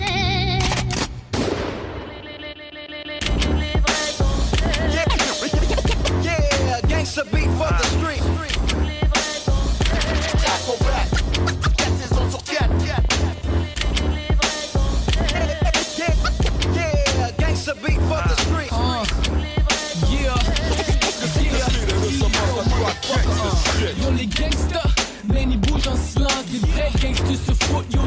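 A rap track plays on the Montréal Love show on radio station CISM 89.3 FM in Montreal, loud and continuous with a deep booming bass line and sharp percussive hits that sound like gunfire samples, after a brief quieter intro of a few seconds.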